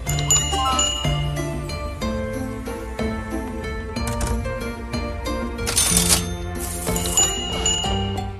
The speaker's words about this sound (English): Yay, dopamine hit from cash register sounds.